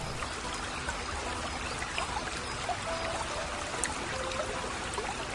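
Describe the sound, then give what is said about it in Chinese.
A babbling brook by a stone runs steadily throughout, a continuous bright rush of trickling water with small splashy flickers and no voices, holding an even, moderate level from start to finish. “这一回又随着风儿飘呀飘的，叶子鸟飘到了小溪旁的一颗石头上。”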